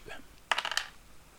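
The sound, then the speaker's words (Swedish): A single die is rolled for a game check, clattering across a hard tabletop in a quick burst of four or five bright, tumbling clicks that settle within a fraction of a second. Otherwise quiet. “Det vill säga du ska upp med en tärning och utstrålning i svårighetsgraden 7.”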